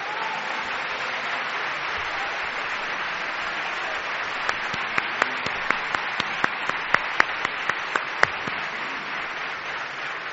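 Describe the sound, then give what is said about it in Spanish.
Steady, dense applause from a crowd fills the whole stretch, with a run of louder, sharper individual claps standing out in the middle section before the clapping evens out again. “en este momento te voy a cortar porque esto sí que se merece un aplauso.”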